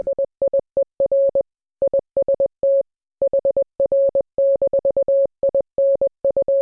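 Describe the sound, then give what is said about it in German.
A single steady beeping tone keys on and off in short dits and longer dahs, spelling out Morse code in quick clipped bursts with brief gaps, clear and alone with no voices. “Und dann allerdings hatte Morse auch schon den Morse-Code erfunden.”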